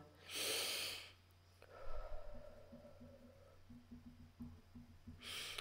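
An airy, slow, deep breath drawn in through the nose, taken as a breathing exercise with a hand on the chest, lasts about a second, followed by quiet low hums and soft movement, then another inhale begins at the very end.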